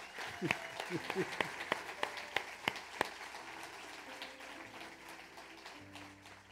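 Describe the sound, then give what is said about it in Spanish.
A church audience breaks into applause for the Lord, a dense wash of clapping with a few sharp, loud claps standing out early on, then settling into steady, softer clapping with a sustained organ-like hum beneath. “Si la amas, dámosle un fuerte aplauso al Señor.”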